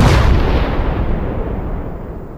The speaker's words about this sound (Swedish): Ni börjar eh, eh, liksom ta er bort från torget och mot spårvagnshållplatsen, uppåt Eh, liksom mot eh, höjden, nästa hållplats så, då ni hör en fruktansvärd explosion.